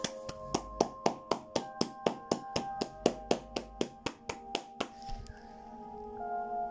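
A single person claps their hands about eighteen times in a steady, fairly quick rhythm, then stops, leaving a faint steady hum in the background.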